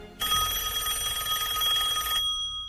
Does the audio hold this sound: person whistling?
no